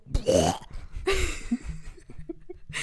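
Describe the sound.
A voice imitates a loud burp in two forceful, croaky bursts with rising pitch, followed by a brief rough tail, with no speech.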